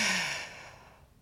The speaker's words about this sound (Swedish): Oj, nu väntar jag, nu andas jag in då.